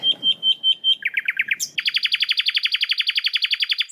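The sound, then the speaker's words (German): Birds chirp outdoors in sunshine in southern Spain in rapid, repeated trills, starting with a few spaced notes and then breaking into a fast, loud, steady run of bright chirps, with faint background noise beneath. “Du bist draußen an der frischen Luft, siehst die Sonne, hörst die Vögel.”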